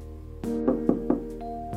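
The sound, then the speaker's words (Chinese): A few firm knocks on a door at night, as a boss knocks on Hudson Taylor's door, struck in an even rhythm, over a soft, steady musical background with no one speaking. “突然，老板来敲门。”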